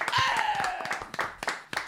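Applause on a show for a caller on the telephone line breaks out: a dense burst of clapping that thins into scattered, uneven claps toward the end, with a high whistling tone sliding downward through the first second.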